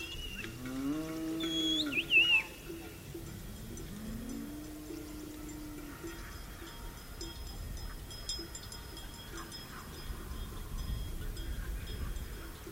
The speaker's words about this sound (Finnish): Tässä laaksossa on runsas sata päätä lihakarjaa osuustilan yhteensä 700 naudasta.